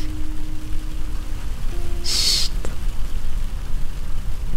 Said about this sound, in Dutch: Dit is het geluid van smeltende sneeuw op een raam. Het is maandagavond 15 januari en er is sneeuw voorspeld.